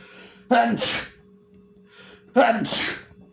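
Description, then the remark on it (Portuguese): Two sneezes in quick succession from a person with a strong allergy, each a sharp, loud burst with a breathy intake before it, with a steady low hum underneath and no talking. “Eu tô com muita alergia. E eu espirro de um jeito muito estranho também.”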